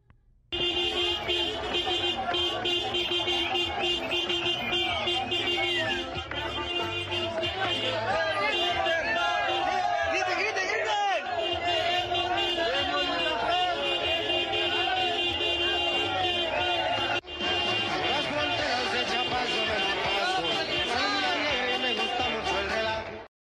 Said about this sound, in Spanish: Por otro lado, le cuento, en Chiapas, pobladores aplaudieron la llegada de la caravana del cártel de Sinaloa. Esto sucedió en Chicomuselo eh, Chicomucelo y Bellavista. Vea usted los aplausos y las peticiones.